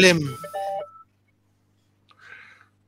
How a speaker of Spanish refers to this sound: Bueno, voy a discar mi propio teléfono. Un segundo, por favor.